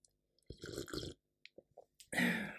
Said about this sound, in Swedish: Um, nu ska jag bara ta en klunk kaffe.